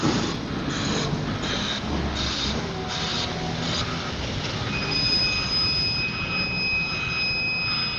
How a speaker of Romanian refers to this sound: A, a deci ajuns trenul. Trenul, trenul.